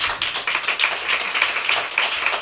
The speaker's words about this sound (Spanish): Toma ya. Un aplauso, ¿no?